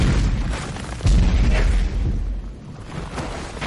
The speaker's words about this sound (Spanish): Cae una flecha explosiva junto a él y explota.